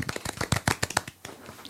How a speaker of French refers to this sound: Bravo. Un petit applaudissement. Bravo.